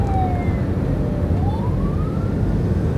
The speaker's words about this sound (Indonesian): ternyata ada ambulan